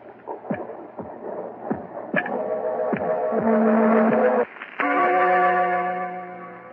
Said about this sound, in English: I killed him. And that noise you hear is his heart. The beating of his telltale heart.